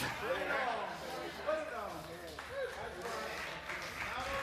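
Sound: audience clapping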